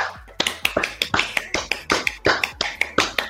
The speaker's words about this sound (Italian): E io direi di fare proprio un applauso al nostro pubblico per averci seguito fino a questo punto.